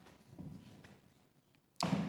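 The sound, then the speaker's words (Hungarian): Muffled thumps and light knocks of chairs being shifted as two more chairs are brought over, followed by a sudden loud, scraping clatter as a chair is set down heavily near the end. “és most ide hozok még két széket,”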